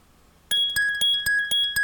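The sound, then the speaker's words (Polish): A BlindShell mobile phone ringtone plays alone: bright, glassy chiming tones pulse in a quick steady rhythm, about four strikes per second, over a sustained ringing pitch, fairly loud. “To są dzwonki telefonu Blind Shell.”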